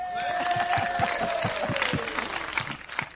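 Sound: audience clapping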